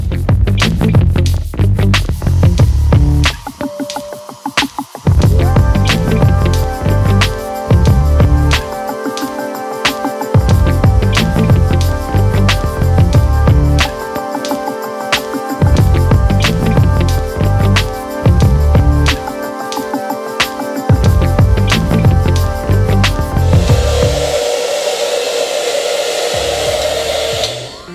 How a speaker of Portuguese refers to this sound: Porque é, esse produto ele é melhor ativado com, com altas temperaturas, né, com calor, então com, com a finalização do secador ele vai acabar ativando melhor o produto, beleza? Vou começar aqui então a, a secar com, com o secador, bora lá.